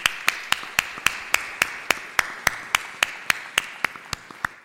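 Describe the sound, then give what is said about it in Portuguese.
Audience applause at a conference for its organizers, with sharp, evenly spaced claps standing out, roughly three or four per second, over a steady, softer wash of clapping. Nobody speaks. “as pessoas que organizaram esta conferência, para quem peço se puder ser uma salva de palmas”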